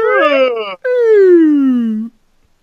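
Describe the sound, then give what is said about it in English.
A loud yawn from a lion: a short voiced intake breaks off, then a long drawn-out groan slides steadily downward in pitch before stopping abruptly, with no talking. “He's yawning there.”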